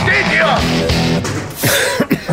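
Someone at an afterparty coughs and clears their throat several times in a row, rough, raspy bursts with a brief pause in between, fairly loud and with no other sounds around them.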